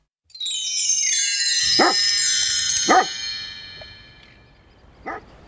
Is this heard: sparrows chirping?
no